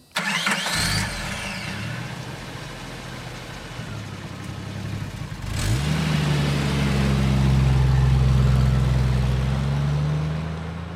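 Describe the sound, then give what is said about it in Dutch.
A family car's engine cranks and catches as it sets off on a road trip, settles into a low idle, then revs up around halfway and holds a louder, steady drone as if pulling away. Loud, with no voices. “Na twee uurtjes rijden”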